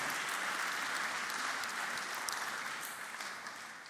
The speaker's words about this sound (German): Dann steh doch jetzt auf. Dann wollen wir dir nämlich einen fetten Applaus geben. Jetzt können wir applaudieren.